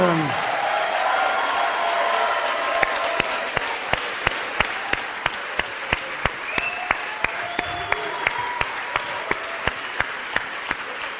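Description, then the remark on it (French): A large crowd applauds loudly and continuously as Sylvester Stallone is welcomed, with sharp rhythmic claps cutting through the dense clapping as excited cheers and whistles rise over it. “Car avec un téléphone, on ne peut pas applaudir, baissez les téléphones.”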